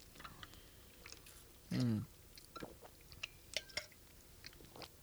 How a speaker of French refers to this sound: Hey, je me, prends une petite gorgée, euh, petite gorgée de café, puis euh, j'arrête de vous achaler avec son On, on change de sujet après ça.